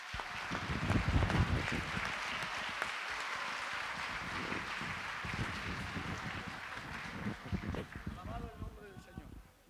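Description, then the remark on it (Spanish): A church audience applauds God steadily during a service, a dense wash of clapping with crowd noise and voices mixed in, holding fairly loud throughout before thinning slightly at the end. “Sí, denle un aplauso a Dios para llenar el espacio.”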